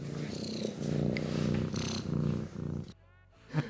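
A small cat purring on someone's lap in front of the TV, a steady low rumbling rhythm that pulses with each breath, continuous for about three seconds before it drops away into quieter background sound.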